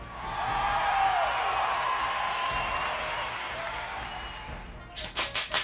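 At an awards presentation, a sustained wash of applause-like crowd noise congratulating the Polish company CDPR on its award gives way to four or five loud, sharp hand claps in a steady rhythm at the end, clapped earnestly and forcefully.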